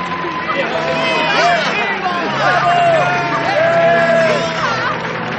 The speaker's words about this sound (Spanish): Cuando el joven se adelantó para besar a la princesa, la multitud aplaudió entusiasmada.